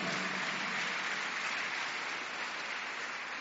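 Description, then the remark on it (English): A crowd clapping hands for Jesus Christ in a dense, steady wash of applause, many overlapping claps blending into a continuous crackle that holds an even loudness throughout, with no voices heard. “Clap your hands together for Jesus Christ.”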